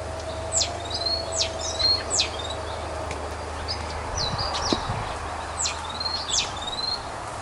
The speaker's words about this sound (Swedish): Talgoxen i sig är, är, inte en sån här som, som härmar andra fåglar. Nej, men den kan variera sin egen sång mycket.